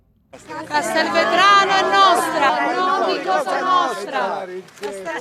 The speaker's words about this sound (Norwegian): Her i hjembyen til Denaro roper demonstranter ut mot mafiaen. Byen er vår, ikke mafiaens, mens de vifter med hvite ark som skal symbolisere en ny start.